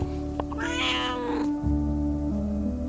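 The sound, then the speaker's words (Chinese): At home, one of two pet cats, Simba and Bobo, gives one drawn-out meow lasting about a second, high-pitched and clearly voiced, rising and then falling away. No one speaks, and a low steady hum continues underneath. “今天呢，我在家里录音，所以你可能会听到喵叫的声音，因为我旁边就是我的两只猫，呃，辛巴和波波。”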